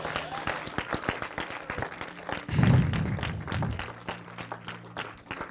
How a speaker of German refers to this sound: Lass uns ein letztes Mal einen Applaus geben